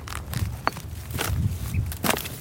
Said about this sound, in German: Wir klettern einen Hügel voller Geröll hoch.